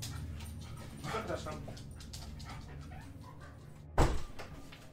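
A dog gives a single sharp bark near the end, after several seconds of quieter dog sounds and soft panting over a steady low background hum.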